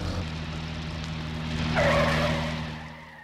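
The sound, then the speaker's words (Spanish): A car engine drones steadily while the tires skid and slip in the mud, swelling into a brief scraping squeal midway before settling again, as the car goes down a very steep, muddy slope in an alley. No one speaks. “Ya subió el carrito. Pero... Uh, ahora viene una bajada muy pronunciada.”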